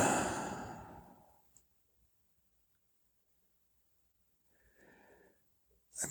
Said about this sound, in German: Oh, ah, ein Gähnen.